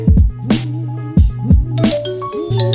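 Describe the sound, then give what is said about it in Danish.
A phone ringtone plays loudly, a bright melodic tone pattern repeating in quick pulses with no one speaking over it; it is an incoming call from someone calling back after losing the connection. “Nu ringer han tilbage”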